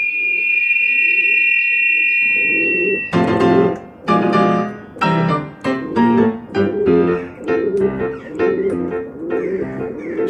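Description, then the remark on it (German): A domestic pigeon coos in low, rhythmic pulses beside a steady high whistling tone, then loud bursts of music come in and carry on over the cooing. “Nein, der Vogel der Woche, die Haustaube.”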